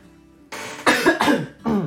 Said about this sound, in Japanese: すいませんちょっと咳させてください